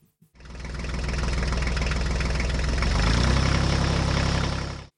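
A tractor engine catches and settles into a loud, steady idle, its deep chugging rumble unbroken for several seconds, with no voices.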